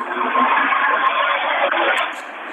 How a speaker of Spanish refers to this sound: No, pues nada más el tránsito.